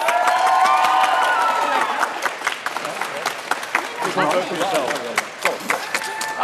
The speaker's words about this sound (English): Okay, so at the end we've got team spending. So give them a round of applause if you think they won the debate.